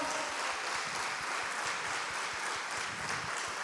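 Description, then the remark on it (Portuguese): An audience applauds for the word of the Lord after a Bible reading, many hands clapping in a dense, even patter with no pauses and no voices, holding at a moderate level throughout. “Vamos aplaudir pela palavra do Senhor.”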